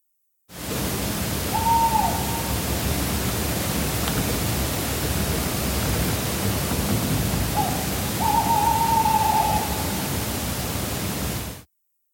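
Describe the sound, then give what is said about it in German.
A small owl, a little owl, calls twice at night with short tonal hoots separated by several seconds, over a steady hiss from recording at a very sensitive setting. “Ja, also dieses Kreuzchen hat dann gerufen, wahrscheinlich hat es mir zugerufen, geh endlich schlafen.”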